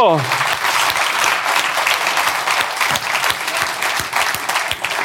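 Steady applause from an audience welcoming a guest, dense overlapping clapping that holds at a fairly loud level for several seconds, with a brief descending tone at the very start.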